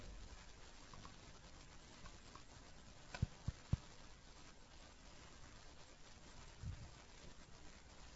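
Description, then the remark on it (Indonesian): Steady rain patters in a continuous soft hiss, fairly faint and even throughout, with a few sharp little knocks breaking through partway in. No one speaks. “Suaranya agak keras sedikit bu karena hujan nggak kalau dengar.”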